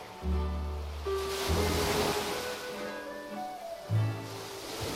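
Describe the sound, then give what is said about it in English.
A steady wash of ocean surf at Waikiki, Hawaii, rolls and breaks throughout, swelling in the middle, while low sustained steel guitar tones sound beneath it. No one speaks. “waves and steel guitars, the call of old Hawaii, and our abiding wish that you are with us here in Hawaii this fine day”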